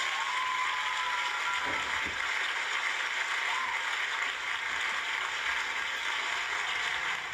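A steady round of applause from a crowd, dense crackling clapping that stays at an even, fairly loud level throughout, with no voices standing out.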